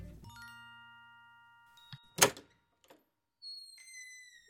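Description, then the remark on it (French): A door of the Assemblée nationale thuds open with a single solid knock, framed by ringing chime-like tones before and after, clear with no voices. “Ce soir, je pousse les portes de l'Assemblée nationale à la rencontre du député Philippe Huppé.”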